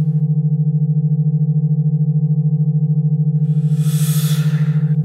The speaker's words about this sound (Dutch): Binaurale beats eh, jonge hippe vogels al een tijdje populair. Kunstmatige geluiden die je kunnen helpen om bijvoorbeeld te mediteren.